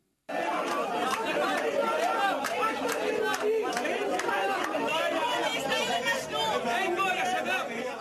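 A dense crowd of protesters' voices chattering and shouting at once, loud, continuously without pause inside the Ministry of Environment in Beirut, Lebanon, protesting the waste collection crisis, broadcast by Al Arabiya, with occasional sharper calls rising above the general din.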